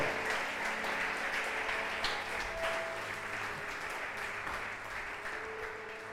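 An audience applauds to the Lord, a dense, steady wash of many hands clapping that holds at an even level for the full six seconds with no voices over it.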